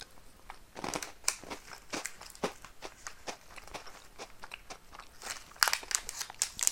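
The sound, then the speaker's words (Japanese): Someone crunching a Takenoko chocolate biscuit snack, a steady run of crisp, irregular crackly bites and chews for several seconds, with a few sharper louder crunches near the end and no talking. “別に何の変哲もないもんねこれ話題になる要素がないじゃないだからこれ今たけのこ食べてるけどさきのことこう対立してるからこれに意味があるんですよねこのお菓子に価値が出るじゃんうまいよね”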